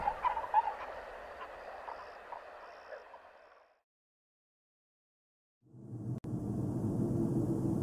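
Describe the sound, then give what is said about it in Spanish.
A chorus of birds calling and chattering, fowl-like, in a forest at sunrise for several seconds, then a sudden silence, followed by a steady low rushing noise with no birds. “La oscuridad fue despejada por el sol y el sonido de las aves.”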